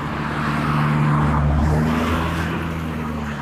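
A car speeds past on a mountain road, its engine drone and tire noise loud and steady, swelling near the middle of the pass with no voices.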